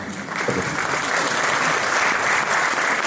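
Steady audience applause fills the space, many hands clapping in a dense, continuous patter at close range, loud and sustained throughout with no voices standing out.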